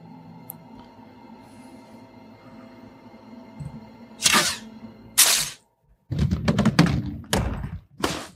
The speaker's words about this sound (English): All right, Katniss was looking at the pile of explosives. There's the explosion. She was very close to the explosion. She was her body was thrown. That's how much pressure and force there was.